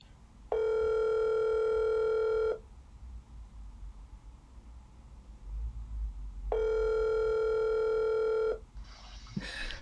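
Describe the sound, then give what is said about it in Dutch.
Two long electronic ringback tones, each about two seconds, separated by a pause, like a phone call ringing on the line. A brief clatter follows at the end. “Ja, we gaan even bellen.”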